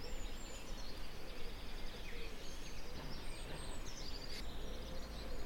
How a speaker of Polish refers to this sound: Dobrze, nałożyłem sobie osłonkę przeciwwietrzną, więc może trochę jeszcze się uda dokończyć tutaj nagranie wśród ptaszków czeskich.